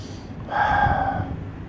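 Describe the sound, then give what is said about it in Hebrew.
A single deep breath drawn in during a spoken affirmation, a soft airy rush that swells for about half a second and fades out, with no talking around it. “נשימה.”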